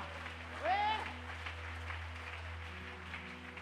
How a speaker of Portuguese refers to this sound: Dá um glória a Deus aí, aplauda o Senhor bem forte aí, vamos ver.